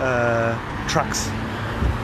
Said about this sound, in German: Oh, jetzt kommt eine, eine S-Klasse Limousine, jetzt kommt ganz viele große Autos, wie amerikanischer Präsident. Man hört es, glaube ich, auch. Ganz viele Sicherheitstrucks